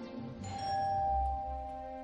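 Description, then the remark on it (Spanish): A doorbell at the front door of a house chimes once, its bright ringing tones sustaining and fading slowly over a low, steady rumble, with no voices. “¿Están llamando? Sí, iba a abrir ahora.”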